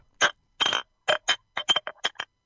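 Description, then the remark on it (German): Glass jam jars knock and clink together in a quick, uneven series of about nine short, bright taps, some doubled, with no talking. “Ja, ist das, ist das halb, ja, also es war, es waren Gläser, es war in dem Fall das Marmeladeglas und das ist ja, wurscht.”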